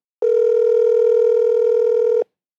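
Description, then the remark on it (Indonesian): A single steady telephone ringback tone sounds for about two seconds, loud and clear with no speech over it, starting and stopping abruptly. “Selanjutnya kita bakal telepon”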